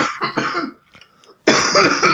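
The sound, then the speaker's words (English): A person coughs hard and harshly in two loud bursts separated by a short, quiet pause with faint breathy sounds, with no talking. “I'm gonna I'm gonna smoke while you cough.”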